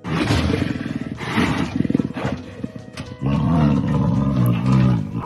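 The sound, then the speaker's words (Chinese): A robot wolf that patrols farms and pig farms, with glowing red LED eyes and a head that rotates 180 degrees to scan around, lets out loud, menacing roars. Deep, rasping growls with a harsh electronic edge come in a few sustained bursts separated by a short, choppy pause, with no voices. “这只机器狼长相狰獰，瞪着发光的红色 LED 眼睛，张大一口尖牙，头还会一百八十度旋转扫描四周，发出恐怖的吼叫声，看起来有够吓人。”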